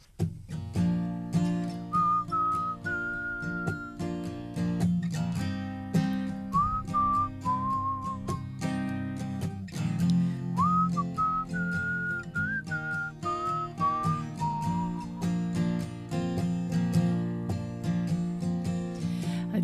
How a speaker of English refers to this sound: I was supposed to have a harmonica, so I'll just whistle.